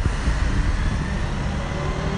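bus idling

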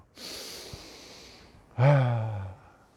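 deep breaths

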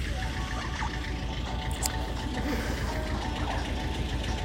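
tractor engines idling

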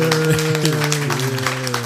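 applause

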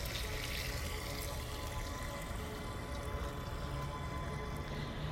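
water pouring

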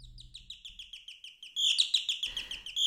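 canaries singing

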